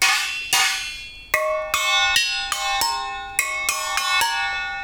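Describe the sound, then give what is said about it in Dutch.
Metal pot lids are struck again and again in an uneven rhythm, each hit giving a bright, clanging metallic ring with shimmering overtones that rings on briefly before the next strike. “Uh, zijn deksels van potten die...”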